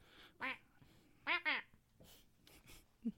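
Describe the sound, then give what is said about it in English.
A voice imitates cartoon duck quacks: a short raspy squawk, then two more in quick succession, fairly loud, followed by softer breathy noises. “What do dinosaurs sound like? Mm-hmm. Mm. Don- Donald Duck.”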